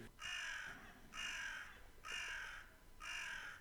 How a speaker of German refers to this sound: War das ein Vogel vor deinem Fenster?